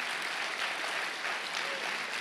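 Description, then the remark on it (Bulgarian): A crowd applauds steadily during a sermon, a dense wash of many hands clapping at once with an even, sustained loudness and no clear individual beats. No one speaks over it. “О, ако ръкопляскаш, ръкопляскай, като че си навярваш.”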